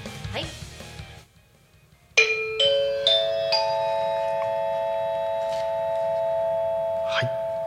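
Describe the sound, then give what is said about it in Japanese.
A brief bit of murmur gives way to a bright electronic chime introducing the Tako Town weather and traffic information: four rising tones struck one after another, each ringing on and overlapping into a sustained, shimmering chord that lingers to the end. “えー、それではですね、えー、多古町の気象情報、はい、交通情報をお知らせしたいと思いますこのチャイムでいいのかな”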